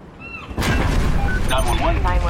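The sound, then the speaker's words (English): After a brief quiet moment, a sudden loud explosion on a cruise ship bursts in and stays heavy, rolling into a continuous roaring rumble with faint wavering, voice-like tones mixed through it. “Ah, there was an explosion.”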